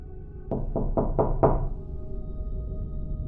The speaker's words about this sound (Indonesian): diketok lagi dong tuh pintu.